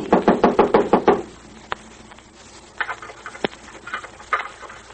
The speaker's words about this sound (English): Someone knocked.